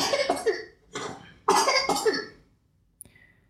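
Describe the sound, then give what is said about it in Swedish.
A small boy coughs in a quick series of harsh, wet bursts, then one more after a pause, followed by a faint click, with no talking. “Det är min lilla hostande son här.”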